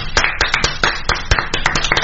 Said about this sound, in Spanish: ¡Ay, que aplausos, macerotes! ¡Más fuertes, por favor!